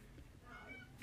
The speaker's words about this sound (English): That's the cat. That's the cat. That's my um, cat.